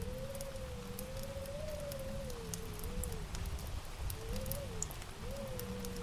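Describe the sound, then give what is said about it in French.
A burning log crackles in a fireplace, with sharp, irregular pops and snaps over a steady low roar, plus a faint wavering whistle running underneath throughout. “Les entendez-vous crépiter Entendez-vous les craquements brusques et sec de la bûche qui se consume.”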